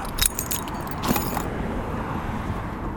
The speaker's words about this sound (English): I'm just uh, at a park yeah, it's kind of noisy. There's um, it's like right by the street. Uh, I need to wait out traffic